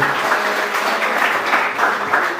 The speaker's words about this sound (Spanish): ¿Por qué no van a aplauso al Señor, por favor, esta mañana? Denle un aplauso al Señor esta mañana, por favor.